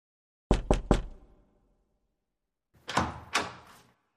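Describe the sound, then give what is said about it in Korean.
Three quick, firm knocks on a hotel room door, room 401 at the Dream View Hotel, a pause of about two seconds, then another round of three slightly softer, more muffled knocks. Clear, with no voices. “401호 방문을 두드렸을 때 문을 열어준 사람은 진상이었다.”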